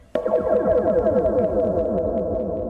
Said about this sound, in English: Uh, now we come over to the fence, a run of about 50 metres of fence wire uninterrupted with quite a lot of tension on it. And on the end post, there's a contact microphone rigged. And here's the sound of the wire.